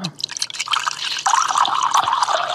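Cold water is poured over ice cubes, starting with a few sharp clinks before a steady splashing fill that grows louder as the glass fills. No voices.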